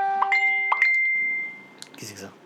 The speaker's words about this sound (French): Non, c'est rien, c'est mon téléphone.